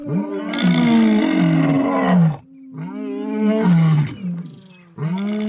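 A lion roars loudly in three deep, rumbling bursts: two long drawn-out roars followed by the start of a third, with no voices.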